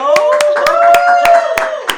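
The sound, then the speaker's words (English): A short round of applause in a studio for a 17-year-old guest crowned Miss Teen Universe 2020: a few sharp claps in a steady rhythm, with a voice holding a long cheering tone underneath. “First of all, round of applause in the studio.”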